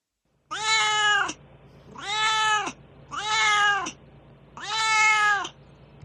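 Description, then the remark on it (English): A cat named Duarte meows four times in a steady rhythm, each call drawn out and loud, with short quiet gaps between them and no talking. “And um, it's time for Duarte's corner, where my cat Duarte weighs in on his opinions.”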